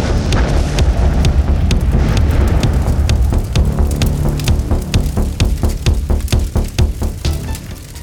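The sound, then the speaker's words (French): A huge explosion as a whole building blows up in the rain and begins collapsing on itself: a loud, deep roaring rumble fills the scene, then gives way to a rapid scatter of sharp cracks and pops like falling debris. No voices. “vous sautez à l'extérieur quand tout le bâtiment explose. enfin, il y a une énorme explosion et le bâtiment se commence à, s'effondrer sur lui-même.”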